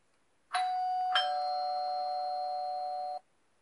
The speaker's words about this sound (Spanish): Suena el timbre de la puerta otra vez.